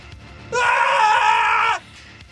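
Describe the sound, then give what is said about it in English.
A voice imitates a group of people screaming: one sustained, loud, strained cry of a little over a second, rising sharply and cutting off abruptly, with faint background noise before and after. “You hear at this moment the creak of a door open and the the thwap of a string breaking, and then you hear and then you hear a group of people go,”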